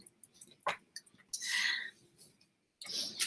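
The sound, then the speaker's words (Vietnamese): Crinkly rustling bursts of a child's snack wrapper, a sharp crackle first, then a longer scrunching rustle, a pause, and another burst at the end; no talking. “mọi người có nghe tiếng sột soạt không bác sĩ nhắc nó đó là nhắc em bé đó là con im lặng nha nó nói là con bé bánh thôi mà con có làm gì đâu”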